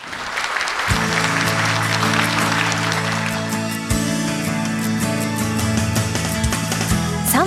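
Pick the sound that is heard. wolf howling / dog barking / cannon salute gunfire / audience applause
audience applause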